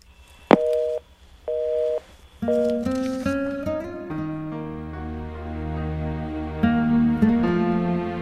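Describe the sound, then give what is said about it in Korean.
A sharp click as a telephone call is hung up, then two evenly spaced beeps of a telephone busy tone, after which soft music rises and carries on to the end. No one speaks. “전화 끊을게.”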